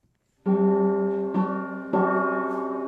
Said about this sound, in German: Dieser Gong ertönt fast jeden Abend, immer so gegen 7 Uhr, über den weitläufigen Hof der Haus- und Hofgemeinschaft in Bärstadt bei Wölfersheim.